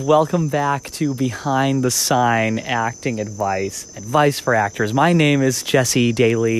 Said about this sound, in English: and if you can hear in the background of this podcast episode, you may hear some um, nighttime critters, frogs, and that sort of thing. Uh, we have a real zoo of animals and wildlife here in the Caribbean